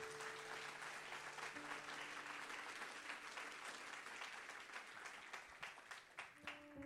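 A church audience applauds for the Lord in a dense, steady roar of clapping that holds loud throughout, with a few sustained tones beneath and individual claps growing more distinct as it thins toward the end.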